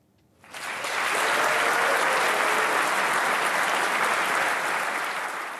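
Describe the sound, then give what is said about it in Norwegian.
Sustained applause from a large crowd at the founding meeting of the new German political party Alternative für Deutschland in Berlin, a dense steady clatter of clapping hands that starts abruptly and holds at an even, loud level for several seconds without any voices. “Applausen satt løst da Tyskland fikk et nytt politisk parti forrige helg.”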